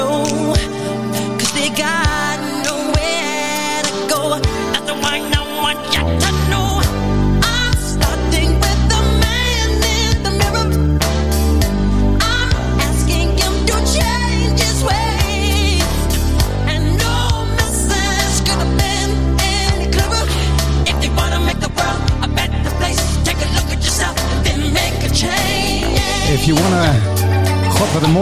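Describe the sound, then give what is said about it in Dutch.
A pop song plays steadily at full volume, a sung vocal line carried over a band with bass and drums, running continuously with no one talking over it. “Wat, wat, wat een gaaf nummer eigenlijk.”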